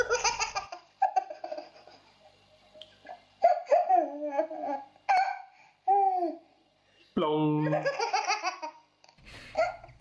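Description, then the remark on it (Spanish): A baby laughs in repeated bursts of high, gleeful giggles and squeals, fairly loud, with short pauses and some babbling between the fits of laughter. “Eh, no, hay nada mejor que la risa de un bebé.”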